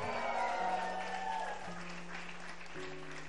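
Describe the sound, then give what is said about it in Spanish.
An audience applauds steadily as cheers and joyful shouts rise from the crowd, with a sustained organ or keyboard chord held underneath the dense clapping. “Aplaude de nuevo y da otro grito de júbilo.”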